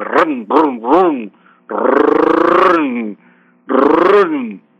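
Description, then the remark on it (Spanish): A person imitates a car engine starting with their voice: three quick sputtering bursts, then a long, loud, rumbling rev, and after a brief pause, a shorter final rev. “Esos son los ejercicios que puede practicar todos los días y puede también imitar el sonido de un carro cuando arranca.”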